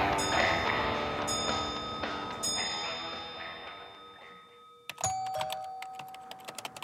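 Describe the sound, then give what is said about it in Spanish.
A doorbell chimes, a few ringing tones that sustain and slowly fade over several seconds, then sharp irregular tapping clicks follow at the end. “El timbre interrumpe una jornada de trabajo productiva.”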